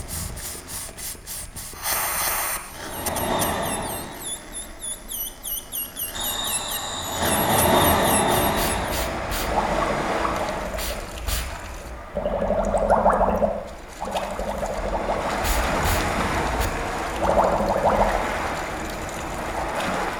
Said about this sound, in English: So there we heard the transition between air and water, uh, but uh, the students kind of again have this very very strong connection with those all those sound materials, and so I think we're able to engage with the sounds in quite a direct way.